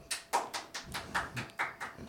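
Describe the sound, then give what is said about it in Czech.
A short burst of roughly nine hand claps at a quick, fairly steady pace, moderately loud, with no voices in between. “Paráda, Jeden potlesk, ano, děkujeme.”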